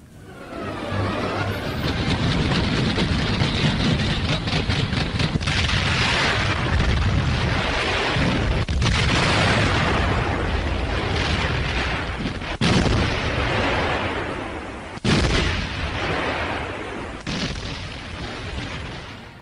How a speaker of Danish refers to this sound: Ja, vi hører lidt krigslarm fra den... Øh fra en tysk urevy, der ligesom fortæller historien om, at, øh, at Sovjetunionen er blevet invaderet den 22. juni 1941.